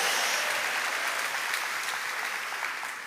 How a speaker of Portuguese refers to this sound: Pode dar salva de palmas palmas ao Senhor.